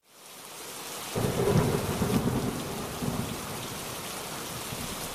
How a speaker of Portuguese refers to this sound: Ainda estava chovendo, mas fazia muito calor, e os avós acharam que não tinha problema um banho de chuva.